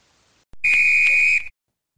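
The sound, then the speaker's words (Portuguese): A referee's whistle gives one long, shrill blast lasting just under a second, loud, with nothing else around it. “Então, apito final, finalizando aqui mais um episódio do Eu Sou 10.”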